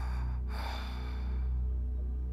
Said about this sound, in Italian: Non mi preoccupo di fare piano e respiro affannosamente. Sono stanco dalla corsa.